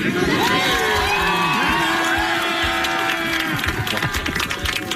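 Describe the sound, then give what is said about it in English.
A crowd of hundreds roars and cheers wildly as they watch a man eat his 40th chicken, a dense, sustained wall of shouting voices with rising and falling yells piercing through, staying loud for the whole stretch. “This is the crowd. Listen to them go crazy.”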